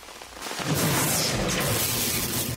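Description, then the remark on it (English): A sudden, loud crack of thunder from a lightning strike erupts and rolls on as a broad, rumbling roar for a couple of seconds, with rain-like hiss mixed in, then cuts off abruptly. “You have a 90% chance of surviving a lightning strike.”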